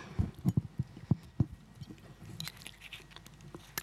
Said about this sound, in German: ich muss mal kurz einen Schluck Wasser nehmen, merke ich gerade, mein Mund ist trocken.